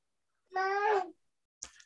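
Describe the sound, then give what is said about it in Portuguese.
A single drawn-out meow from a female pet cat, fairly clear, wavering slightly in pitch before trailing off, followed after a short pause by a brief soft rustle. “Ai, Ó, a, a, minha gata chorando aqui.”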